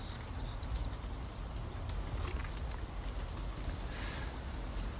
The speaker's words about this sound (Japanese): 雨の日の境内っていうのはなんか新鮮な感じがして好きだっていう人も結構多いんですけどちょっと回帰酒やるには雨の日はやめといた方がいいかもしれないですね